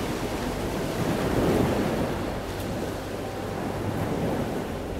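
Ocean waves surge and break in a steady, rolling wash of surf, with a swell of louder crashing early on and a gusty, windy roar throughout. No voices.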